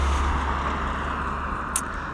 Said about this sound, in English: You can probably hear some of the cars um, that I'm now I'm now back on the main road that I uh, walks here on.